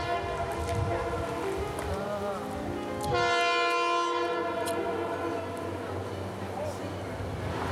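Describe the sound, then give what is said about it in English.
A train sounds its horn in one long, steady blast lasting a couple of seconds, over a low rumble of rail noise, with faint voices before and after. “What is that, the train?”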